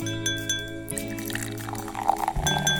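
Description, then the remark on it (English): A sharp champagne cork pop, then bubbly champagne pouring steadily into a glass, with a light clink and a fizzing splash toward the end. No one speaks. “But first, Let's pop the cork on this bubbly little show.”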